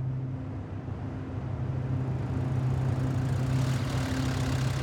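A car engine idles steadily with a low, continuous hum and faint tonal drone, fairly loud, swelling slightly as it revs a little toward the end, with no talking, as the car is driven toward the town centre.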